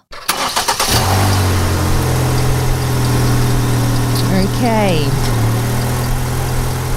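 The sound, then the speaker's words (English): A car engine is started on a road trip around Australia: it cranks briefly and catches, then settles into a steady, low idle rumble that continues throughout. A voice speaks a single short word over the idling. “Let's start the car.”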